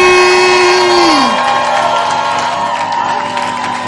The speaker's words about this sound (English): I want you to stand to your feet with shouts of Jesus' joy and welcome